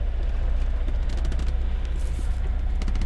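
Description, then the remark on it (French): A sailboat's engine drones steadily and loudly inside a sleeping cabin during a crossing under motor, a constant low rumble with a few faint, scattered creaks of the boat's wood above it. No one speaks. “Et le son est tout de suite un peu moins romantique vu qu'on entend juste le moteur du bateau et peut-être un petit peu le bois qui craque.”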